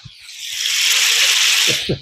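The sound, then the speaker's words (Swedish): A steady, bright hiss of butter and oil sizzling on a hot griddle as bread is toasted, sustained for about two seconds, with a few soft low knocks at the start and end. “Får en massa eh, smör in Olja och smör. Ja. Den fräser på bra.”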